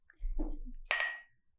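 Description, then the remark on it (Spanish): A single bright clink of glasses in a toast rings out, its tone lingering briefly before fading, preceded by a soft low murmur and handling noise. “Salud.”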